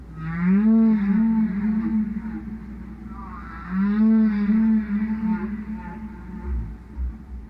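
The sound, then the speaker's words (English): A whale song record is blasted loudly by Greenpeace activists at whalers, two long rising and wavering moans with rich harmonics, one after the other, over a steady low rumble and a few faint knocks near the end. “They're blasting Roger's whale record.”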